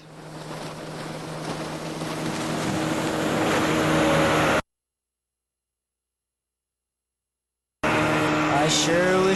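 A motorboat engine drones steadily over rushing water, swelling louder as it nears, then cuts off abruptly into silence before the loud engine roar returns.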